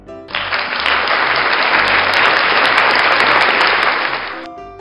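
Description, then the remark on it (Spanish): A burst of crowd applause, dense and steady clapping at a loud, even level for about four seconds, starting abruptly and fading out at the end, with no voices. “y por supuesto, darle un fuerte aplauso por el trabajo realizado.”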